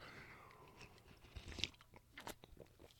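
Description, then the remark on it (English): A quiet sip of coffee: a short slurp and soft mouth and swallowing noises, with no one talking. “Another sip of coffee.”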